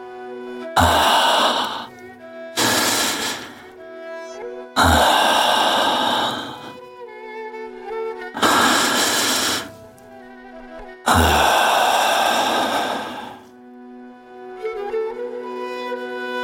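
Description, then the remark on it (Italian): Five slow, heavy, loud breaths taken to calm down, each a long airy rush with pauses between them, over a soft sustained musical background. “Devo respirare piano, come mi hai insegnato tu.”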